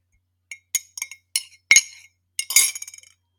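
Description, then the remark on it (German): A metal spoon clinks repeatedly against a ceramic cup of coffee with a piece of sugar and extra milk, several bright ringing taps in an uneven rhythm followed by a quick flurry of rattling strikes, clear with no talking. “Es ist der Löffel in meiner Tasse und ja, du hast richtig gehört.”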